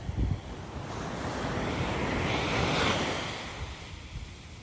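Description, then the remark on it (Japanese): Ocean waves wash onto Torrance Beach in the evening, on a 35-degree day in October, in a steady roar, swelling to a crest midway and then receding, with gusty wind buffeting the microphone. No one speaks. “さあ OK 海岸沿いまで来ました”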